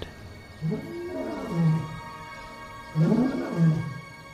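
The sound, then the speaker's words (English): A lion roars twice, deep and rumbling, each roar swelling and then fading, with a short pause between them and no voices. “But my hope then gave way, and fear reclaimed me as a mighty proud lion of a sudden appeared.”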